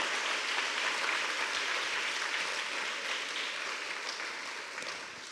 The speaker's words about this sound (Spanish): ¿Cuántos bendicen el nombre del Señor? Aleluya, denle un aplauso al Señor porque Él es digno. Gloria al Señor.